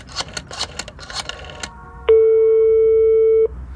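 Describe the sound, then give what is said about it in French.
Quick clicky taps like keys being pressed on a phone booth telephone, followed by a loud, steady electronic telephone tone that holds for over a second before cutting off, as a boy calls his father, who does not answer. No voices. “Au bout d'un moment, il va à la cabine et il l'appelle.”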